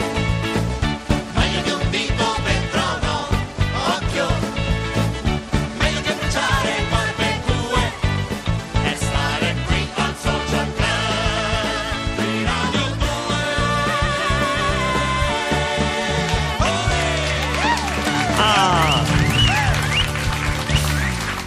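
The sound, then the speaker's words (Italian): A radio show's theme jingle plays loud and busy for about twenty seconds, dense layered instruments with bright melodic lines and a steady driving beat, no voices talking over it. “Sigla!”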